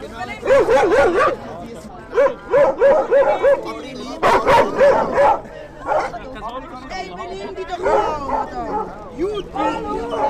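Several dogs bark and yip in quick, excited bursts, with high-pitched yelps mixed in, while a murmur of people chattering carries on in the background, on the steps in front of a church where about 20 people sit in warm weather, drink beer, chat, call out and try to keep their dogs in check.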